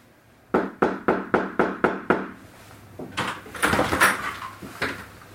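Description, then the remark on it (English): Police knock seven times, loud and firm, on the door of apartment four at 3003 Springfield Drive in a quick, steady rhythm, followed by muffled shuffling and a few duller thuds. No one speaks. “And this is the first time that you see the police coming and knocking on the door of apartment four at 3003 Springfield Drive.”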